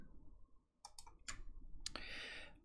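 Four sharp computer mouse clicks at uneven intervals, Ctrl-clicking to open a news item, the last followed by a steady high-pitched hiss over a low background hum. No one speaks.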